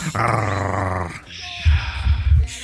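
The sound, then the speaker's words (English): A person imitates a snarling werewolf, starting with a loud, raspy sustained growl, then a brief pause and a series of deep, rumbling guttural snarls, forceful. “I want a scary ass Worgen chick. That's what I want.”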